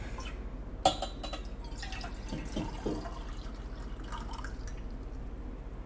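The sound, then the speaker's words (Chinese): Water is poured into a cup: a sharp clink, then a quiet, uneven trickle with scattered drips over a steady low hiss, fairly soft throughout and without any voices. “那个不是尿尿声，那是我在倒水，但是你们也分不出来。”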